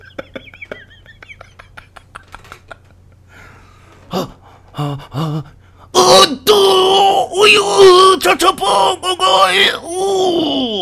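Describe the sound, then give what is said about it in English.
A man's voice imitates a man's loud, drawn-out climax moaning: after a few quiet seconds come short breathy grunts, then a run of strained, wavering groans and wails, intense, with no words. “We heard the guy climax. I'm going to try and do a good version of it.”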